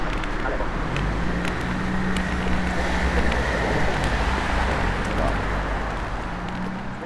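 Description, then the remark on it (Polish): Steady street traffic fills the scene at an intersection, with a car engine idling in a low, humming drone as the car stops to let pedestrians cross, beneath a continuous wash of road noise and wind, loud and unbroken throughout. “Samochód nas przepuszcza, przechodzimy przez skrzyżowanie kolejne.”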